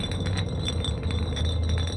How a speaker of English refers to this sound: Louis spun the empty bottle. The sound of glass gliding across wood became a droning sound of impending danger.